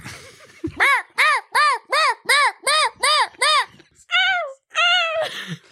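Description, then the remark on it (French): A person imitates a seagull with a quick series of about eight loud, nasal, rising-falling calls, followed by two longer drawn-out wails. “Alors, faut que vous vous mettiez ici pour faire les mouettes.”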